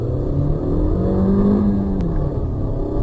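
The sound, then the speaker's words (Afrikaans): A Chevrolet Cruze sedan's 1.4 turbo petrol engine revs loudly, a steady low rumble that swells into a rising rev midway, then settles back. No voices are heard. “Die grootste verbetering is dat die 1.8 plek maak vir 'n 1.4 turbo.”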